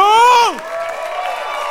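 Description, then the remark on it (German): At the close of a tour's opening concert, a loud, drawn-out voice shouts and trails off downward, then a steady wash of audience cheering and applause carries on at moderate volume for the rest of the moment. “Und genauso großen Applaus”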